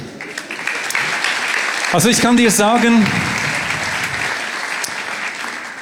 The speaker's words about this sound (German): Genau, ich glaube, Applaus für dich.